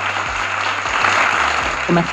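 A steady wash of crowd applause, dense and even, with many hands clapping at once: the 9-second applause sound effect built into iMovie. A low humming tone and a brief higher chirp sit underneath near the end.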